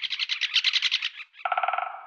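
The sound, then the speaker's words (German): A great spotted woodpecker calls in a fast, harsh chattering series, clear, then switches to a lower, more nasal run of rapid notes; no voices. “Der Buntspecht. Ihm geht es noch gut.”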